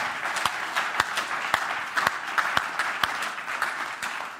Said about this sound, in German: Ich würde sagen, wir geben Ihnen mal einen riesengroßen Applaus. Ihr Lieben, Dankeschön für euer Herzteilen.